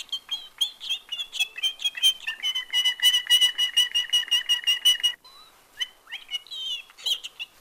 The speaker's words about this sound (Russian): Вот они какие канаречки. Это говорящие канарейки.